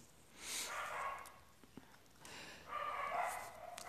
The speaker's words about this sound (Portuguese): Ai, cara, que chato esse cachorro, cara, que chato. Nossa, que chato.